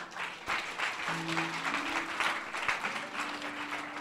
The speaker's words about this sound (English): Clap for Jesus.